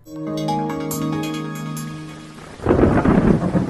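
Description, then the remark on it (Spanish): A sustained, swelling musical chord fades out, then a loud burst of thunder breaks in with heavy rushing rain, rumbling through the last second or so. “Ahora, si hay un desastre, la prioridad es atender las emergencias, como hace 10 días, cuando la tormenta se nos vino encima.”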